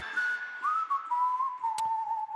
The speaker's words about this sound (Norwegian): Elska plystringa der.